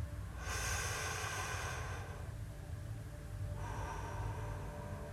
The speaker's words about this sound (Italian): Però i primi respiri profondi mi permettono di avere più sensibilità, una percezione più ampia del mio respiro.